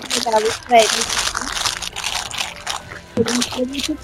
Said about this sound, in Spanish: se escucha mucho el un sonido como de de una bolsita o algo así, no sé si